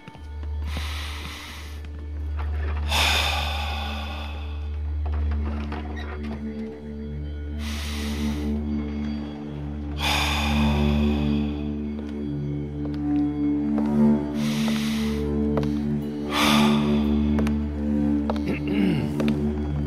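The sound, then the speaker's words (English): Slow, deep breaths rise and fall in a steady rhythm as a relaxation exercise, each a soft, airy rush, over a constant low humming drone with no talking. “Continue that deep breathing, and I'll be right back.”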